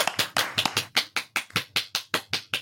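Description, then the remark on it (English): Hands clap in applause thanking a guest doctor for her expertise, at a quick, steady rhythm, about a dozen sharp, bright claps, loud and evenly spaced, sounding like a small group or a single pair of hands applauding, with no talking. “A big round of applause”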